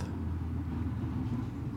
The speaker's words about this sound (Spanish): Porque ya empezó el tráfico.